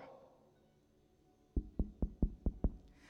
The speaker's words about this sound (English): The, the, the, journal of Brother Mueller tells us that before he said amen, there was a knock at the door.